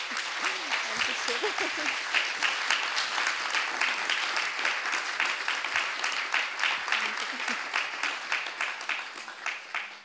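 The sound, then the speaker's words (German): Sustained applause from an audience, a dense wash of many hands clapping at steady volume for the full ten seconds, with faint voices murmuring underneath. “Ich glaube, das ist mal ein Applaus fällig.”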